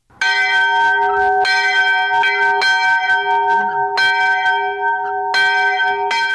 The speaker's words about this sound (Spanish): Aunque los campanarios de las iglesias siguen derruidos, algunas campanas han sido colocadas en unas estructuras antisísmicas para satisfacer las demandas de los habitantes de esta castigada zona de Italia.